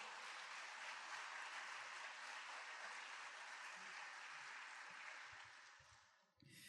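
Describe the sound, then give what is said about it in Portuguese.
A large audience at a church service applauds the Lord (Jesus) steadily, a dense sustained wash of clapping that fills the room for several seconds before tapering off, with a few muffled voices underneath. “Você pode aplaudir o Senhor por isso?”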